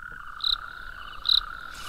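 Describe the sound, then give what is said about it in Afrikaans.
Frogs croak in a steady night chorus, with two louder, sharper calls standing out, about a second apart. No one speaks. “Ek wens een van die paddas wil my ook leer sing soos hulle.”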